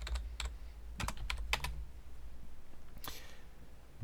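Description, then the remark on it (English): Quick bursts of typing on a computer keyboard as words are typed into a Google search, a handful of crisp keystrokes clustered in the first two seconds, then a brief rattle of keys near three seconds, fairly quiet over a low hum. “I'm going to type cursed words into Google, and the sound I make afterwards will tell you whether this hits or not.”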